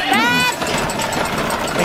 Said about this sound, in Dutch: Hier moet je aan deze kettingen trekken. Dan hoor je dat ratelen, kijk, dan gaat je pony allemaal.